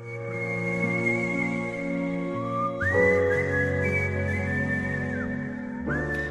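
A person whistles a sustained, melodic tune with long gliding notes over a soft instrumental backing, clear and close, with no talking.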